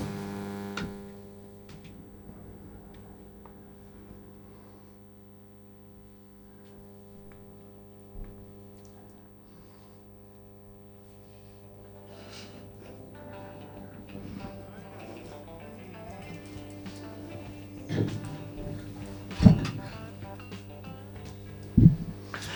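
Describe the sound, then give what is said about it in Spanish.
A synthetic electric-car driving sound that drivers can compose to their own taste: a steady, layered electronic hum with stacked harmonic tones droning for over twenty seconds, swelling slightly toward the end, where a few sharp clicks punctuate it. “Se trata del sonido de un coche eléctrico que podremos coger y componer a nuestro gusto.”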